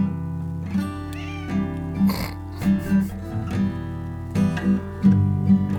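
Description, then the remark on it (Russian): A cat lets out several drawn-out meows over steady, tuneful music, the yowls rising and falling irregularly as if singing along. No one speaks. “там подпевает, что ли?”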